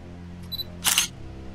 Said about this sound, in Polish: wyjął aparat. Powolnym ruchem skierował obiektyw w stronę budowli. Nacisnął przycisk.